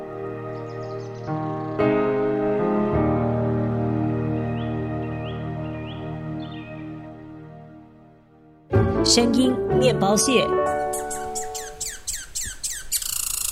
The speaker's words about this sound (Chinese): 哦，这是松鼠的叫声。有时候你会在公园里面看到松鼠在树上跑来跑去。